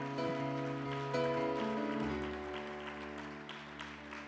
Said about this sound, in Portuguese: O que faz o mesmo, pode aplaudir o Senhor.